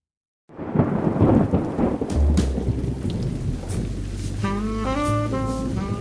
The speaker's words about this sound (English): I was sitting in my office listening to the monotonous staccato of rain on my desktop.